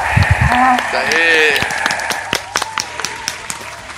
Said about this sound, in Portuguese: Uma salva de palmas.